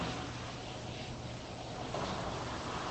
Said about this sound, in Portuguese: Não sei se vocês estão ouvindo, gente, mas está um vento, uma chuva aqui. Todo esse barulho externo que vocês estão ouvindo é do tempo lá fora.